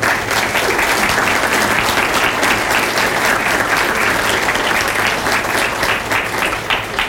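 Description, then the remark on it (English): A crowd applauds steadily for about seven seconds for Sheriff Vic Regalado's team members, a dense, even wash of many hands clapping at constant loudness, with no voices standing out. “And we need to give these guys, he's got a couple of his members, his team with him, give them a big round of applause for what they do every day.”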